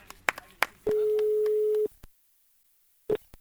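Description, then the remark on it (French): A phone ringback tone: one steady, mid-pitched beep about a second long, preceded by a couple of faint clicks and followed by silence, with a short blip near the end. No one speaks. “J'ai suivi un peu la course dans le parc et on a débriefé au téléphone quelques jours plus tard.”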